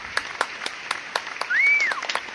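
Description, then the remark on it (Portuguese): Light, scattered applause: a handful of sharp, crisp claps at an uneven rhythm, with a brief high whistle-like tone rising and falling midway through. “Meus parabéns para todo mundo e eu gostaria de pedir uma salva de palmas aqui para todos.”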